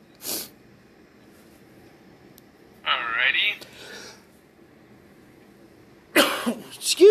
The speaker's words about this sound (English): I thought I was going to sneeze, but then it was just a cough.